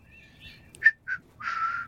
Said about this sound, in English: Oh, there's whistling and clanging. This is very ASMR.